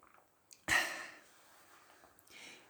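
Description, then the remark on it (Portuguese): A faint click and swallow as someone drinks water, then a loud, breathy, satisfied exhale, like an "ahh" after a gulp of water, trailing off into quiet breathing. “Ah, este barulho serve, na verdade, para vocês perceberem realmente que eu estou a beber água.”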